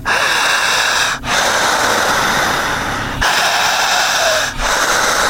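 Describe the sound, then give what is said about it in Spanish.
Loud, forceful pranayama fire breathing, each a long rushing inhale or exhale lasting a second or two, separated by brief pauses in a steady rhythm, with no talking. “Esta respiración es sagrada es milenaria, se llama respiración sincrónica, pranayámica, holística, una respiración sagrada o de fuego.”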